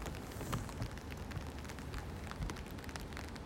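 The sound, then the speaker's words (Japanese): Steady rain patters on an umbrella held overhead during a walk on a rainy day, a dense crackle of countless drops with occasional louder taps, continuous and fairly quiet with no voices. “えー、で雨って憂鬱になる人が多いと思うんですけどせっかくだからねこの雨音聞こえます傘さしてるんですけど今”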